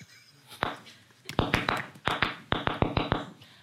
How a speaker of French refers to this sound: C'est claquette.